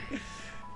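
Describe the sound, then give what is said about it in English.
A short electronic mobile phone ringtone melody plays at moderate volume, steady and tonal, against a faint background murmur with no clear speech. “my apologies. That's my phone.”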